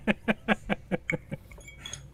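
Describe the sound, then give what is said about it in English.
Glasses clink together in a toast: a quick run of about six or seven bright, ringing taps at an even pace, growing softer and more scattered before fading out. “Oh, cheers! Yeah, cheers.”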